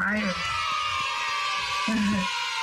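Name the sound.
crowd cheering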